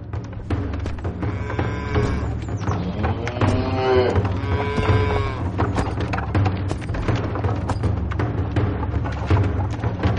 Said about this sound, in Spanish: Y entonces, a la primera luz, oyó el crujir de un carruaje y se acurrucó a un lado del camino y observó el paso de un pesado carro de dos ruedas arrastrado por lentos bueyes.